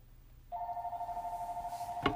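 A phone rings with a steady, electronic warbling tone that starts abruptly and holds, loud, with a brief sharp knock near the end. No one speaks.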